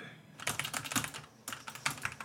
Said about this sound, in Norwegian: Fingrene går fort over tastaturet når … spiller Fortnite.